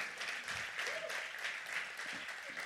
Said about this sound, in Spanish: Mira, alguien aplaudía allá.